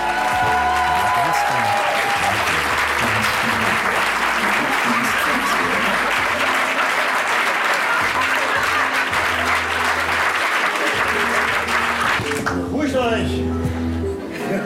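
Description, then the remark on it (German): An audience welcomes the performers with loud, steady applause and some cheering mixed in, the clapping dense and sustained before fading near the end as a few voices come through. “Und jetzt würde ich sagen, begrüßt mit mir mit einem großartigen Applaus. Ihr dürft jubeln, tanzen, klatschen, äh, von mir aus rückwärts die Wände hochgehen.”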